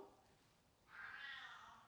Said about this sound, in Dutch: De poes komt hier meepraten.